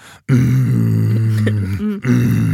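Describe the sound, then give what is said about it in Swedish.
A voice imitates a long, contented groan, the sound men make while embracing each other at length at a men's evening: a low, steady hum-like moan held for about two seconds with a brief dip near the end, fairly loud. “att de har en manskväll, delningskväll, de träffas hemma hos någon och så eh, omfamnar de varandra eh, jättelänge och låter så här mm,”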